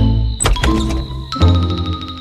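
The door of a small house in a clearing opens with a sharp latch click followed by a brief rattling creak, then a second louder thump as it swings, clear with no voices.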